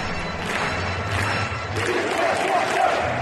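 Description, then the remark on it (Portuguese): A large crowd of Chelsea football fans chants together in a stadium at the start of a match, including "We hate Tottenham" and "Chelsea": a dense roar of many voices singing in unison with a steady, rhythmic swell and no single voice standing out. “é aqueles casinho que eles cantam no início da partida.”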